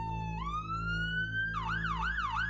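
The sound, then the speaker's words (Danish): An emergency siren of an ambulance or police vehicle sounds loudly, first a tone sweeping slowly upward, then switching to a quick repeating up-and-down wail, over a steady low engine rumble. “De falder 6 meter, og fire af de seks unge går ud som et lys og ligger bevidstløse på jorden, mens ambulance og politi bliver tilkaldt.”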